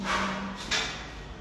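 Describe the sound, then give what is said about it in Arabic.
A door swings shut during a lecture with a single soft thud, following a brief rustling slide, heard at moderate loudness with no one speaking. “ممكن تقفلي الباب عشان”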